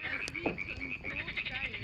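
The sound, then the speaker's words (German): A dense chorus of frogs giving mating calls on an early summer evening by a campfire, croaking steadily, overlapping calls forming a continuous pulsing drone with a bright trilling layer, fairly loud, no talking. “Lausche dem Knistern des Feuers, den Paarungsrufen der Frösche.”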